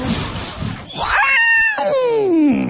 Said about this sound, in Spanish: ¿Eso qué era? Hay un elefantito bebé. Sí, jugando chapoteando en el agua.